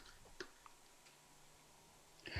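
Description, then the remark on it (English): Foil-wrapped Hershey's Kisses chocolate candies being unwrapped: a few quiet, scattered crinkles and clicks, then a louder burst of foil rustling at the end. No one speaks. “You need to unwrap some Hershey's Kisses”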